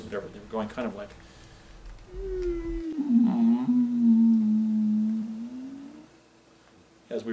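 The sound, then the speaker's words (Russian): After brief talk, a single deep, sustained whale-like mooing call from a herd animal being petted swells and wavers for about four seconds, fairly loud, then fades into quiet. “И они начали мычать, как киты, таким глубоким звуком радости или принятия и так далее.”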